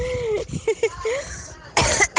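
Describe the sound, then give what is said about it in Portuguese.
A person speaks briefly, then gives two harsh coughs in quick succession, loud and raspy, ending the moment. “Aí uma tosse pra ti, pega gripe.”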